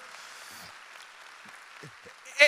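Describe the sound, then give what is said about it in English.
A church audience at Church by the Glades claps steadily for its pastors and leadership in a soft, continuous wash of hand clapping, with a few faint voices mixed in and a brief louder burst right at the end. “Just give a, a hand clap to your pastors and the leadership that you're under”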